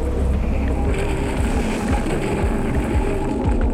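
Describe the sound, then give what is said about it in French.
Steady roar of wind and rushing water aboard a racing sailboat at sea, recorded with about fifteen microphones fitted on the boat, with deep rumbling thumps from the hull beneath a constant, loud wash of noise. “J'ai équipé d'une quinzaine de micros un bateau du vent des globes.”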